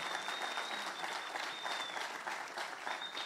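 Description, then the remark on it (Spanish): An audience applauds steadily, dense overlapping claps forming a sustained, even roar of hand-clapping with no pauses, broken only by a faint high whistle-like tone now and then. “Démosle un aplauso al Señor porque es lo que quiere traer a nuestra vida.”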